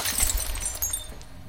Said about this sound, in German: Vater näherte sich einer Frau Dabei stieß er ein Glas Wasser vom Tisch, das in tausend Scherben zersplitterte.